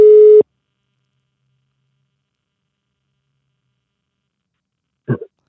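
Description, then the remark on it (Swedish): A single short telephone busy tone sounds loudly at the start of a call attempt to a man's regular telephone, followed by a long stretch of silence and a brief muffled noise near the end. “Vi provar på hans vanliga telefon.”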